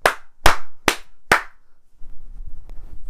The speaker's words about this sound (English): Sorry, mind your ears. um, yeah. Anyway, so there's that fucking clap, but you know you're really meant to do an industry clap, and by all means, clap horning.